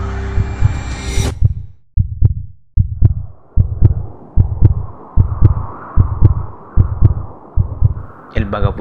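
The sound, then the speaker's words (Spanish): A rapid heartbeat pounds in deep, low thumps, about a dozen evenly spaced beats, over a faint steady hum, starting after a short burst of rushing, breathy noise. “está ensimismado, concentrado en su respiración, lo acelerado de su palpitar”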